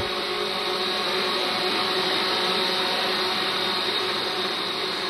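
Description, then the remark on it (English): A dense, steady buzzing whine of a massive swarm of drones flying over a crowd on a town common, layered high-pitched motor tones holding constant and loud throughout, with no voices. “A hush falls over the crowd as everyone turns their gaze skyward to see a massive swarm of drones approaching the common.”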